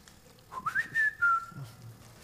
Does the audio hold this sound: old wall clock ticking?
no